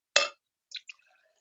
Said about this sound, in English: that much, so I've, I've sort of filled the empty glass half full.